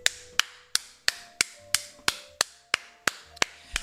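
A brief round of applause made of about a dozen sharp, bright claps in a slow, steady rhythm, each ringing out briefly before the next, with no voices.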